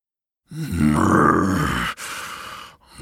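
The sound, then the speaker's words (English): A loud guttural growl rumbles for over a second, then breaks into a harsh hissing spit, like a voice imitating an angry creature. “when they woke him from his peaceful slumber, he barreled out of the brush, growling and spitting towards the loud men.”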